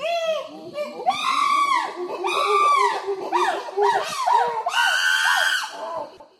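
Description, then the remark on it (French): A baby chimpanzee at a camp for orphaned chimpanzees in the bush of Cameroon screams loudly in a rapid series of shrill, piercing shrieks, nearly continuous, rising and falling in pitch across several seconds. “Attention les enfants, bouchez-vous les oreilles parce que les bébés chimpanzés ça crie très fort.”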